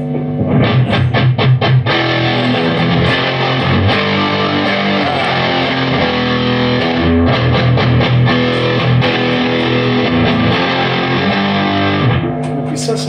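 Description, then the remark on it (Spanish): A loud electric guitar through the dirtier channel of an all-analog amp, bass and treble raised and mids cut for a scooped tone, plays chugging muted riffs and sustained chords in a steady rhythm, with no talking, before cutting off near the end. “Bajar, subir graves y agudos y activar. Hacerlo bien, eh, hacer una B corta, digamos. Claro, un sonido bien scoop.”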